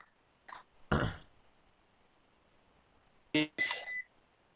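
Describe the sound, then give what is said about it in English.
A phone call's audio breaking up: short, harsh bursts of garbled, crackly sound cut in and out between stretches of near silence, the last two bursts louder and carrying a faint tonal whine. “You're breaking up.”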